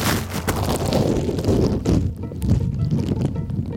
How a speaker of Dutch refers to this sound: Zakje over de microfoon en hou ik hem even onder water. Zo, even luisteren.